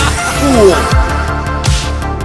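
A loud, full music track plays on its own, with dense synth layers, a gliding lead line, deep bass and a steady beat of punchy drum hits.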